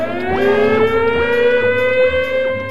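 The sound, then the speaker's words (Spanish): A loud emergency alarm siren, set off by someone pressing an emergency button, wails steadily with a rich, buzzy tone, its pitch gliding slowly upward while a faint regular pulse ticks through it. No one speaks. “Colorín, corriendo, pulsó el botón de las emergencias.”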